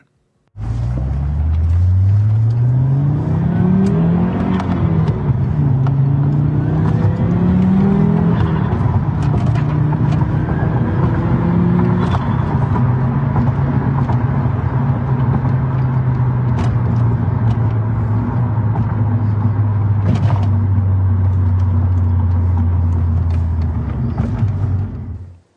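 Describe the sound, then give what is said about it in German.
A turbocharged Audi RS2 engine revs up through several gear changes on a test drive, then settles into a steady loud drone, with a faint turbo whistle and brief wastegate chirps; no one speaks. “Gibt leider ein kleines bisschen Nebengeräusche, aber wenn ihr ganz genau hinhört, könnt ihr dafür sogar den Turbo pfeifen und das Wastegate zwitschern hören.”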